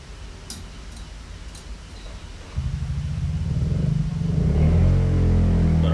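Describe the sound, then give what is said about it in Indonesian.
A motorcycle engine rumbles in from a quiet background at about two and a half seconds, growing louder as it rolls past with a steady, throaty drone. “motor anjing oke ada motor guys”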